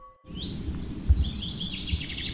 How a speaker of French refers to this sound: c'est l'été et se promener dans la forêt de Chantilly est juste délicieux. La végétation est luxuriante et les oiseaux chantent